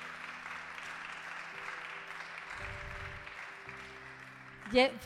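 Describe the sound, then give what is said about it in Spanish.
An audience claps steadily for several seconds in honor of the speaker's daughter, a dense, even wash of applause at moderate volume, with low sustained tones humming beneath and a brief louder burst near the end. “Un aplauso”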